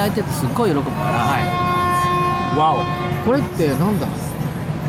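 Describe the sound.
A ship's horn sounds one long, steady, buzzy blast lasting about three seconds, held at a constant pitch while people talk over it.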